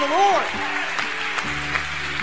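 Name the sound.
audience hand clapping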